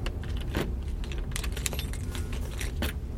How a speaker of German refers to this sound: Beziehungsweise ich, es sind ja wahrscheinlich mehrere Schlüssel dran. Ich würde jetzt mal einen probieren, der irgendwie passend aussieht.